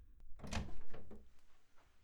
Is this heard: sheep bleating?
no